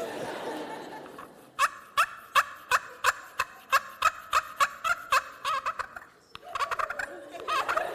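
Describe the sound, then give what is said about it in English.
A slate turkey call, used in turkey hunting, scratched out in a rapid run of about fifteen sharp, evenly spaced yelps, loud, with faint talking or laughter before and after. “so you use different turkey calls. I believe this is called a slate call.”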